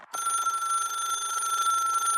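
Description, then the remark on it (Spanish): A telephone bell rings continuously with a bright, steady metallic trill that starts abruptly and sustains loudly for a couple of seconds, with no voices present. “El teléfono y el cinematógrafo.”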